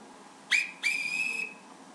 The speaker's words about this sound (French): Et ça, bien sûr, c'était le sifflet de l'arbitre.